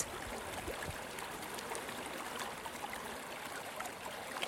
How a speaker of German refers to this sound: Die Quelle von Noiraigue ist eine der größten Karstquellen im Jura. Karstquellen haben ihr Einzugsgebiet, in dem sich das Regenwasser sammelt, in Kalksteinbergen.